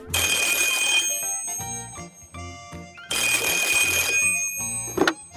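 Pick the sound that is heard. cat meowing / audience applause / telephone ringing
telephone ringing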